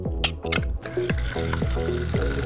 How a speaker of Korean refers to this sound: 아, 부모 소리로 부족하다면 이걸 상상해 보는 건 어떨까요? 무슨 소린지 아시겠죠? 신나게 달리고 뜨거운 물에 샤워하고 시원한 맥주를 따서